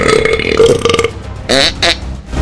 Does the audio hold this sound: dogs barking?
no